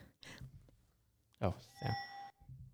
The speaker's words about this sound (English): That's my bicycle bell.